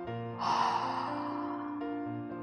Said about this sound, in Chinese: 打了一个大大的哈欠。